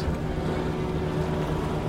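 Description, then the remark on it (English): A small boat's motor drones steadily on the water in Greenland as people are carried by rubber boat to a fisherman's boat, a continuous low hum with a faint tonal whine, fairly loud throughout, with no one speaking. “We transported by little rubber boat to another fisherman's tiny boat”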